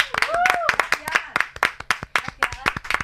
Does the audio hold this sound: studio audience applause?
yes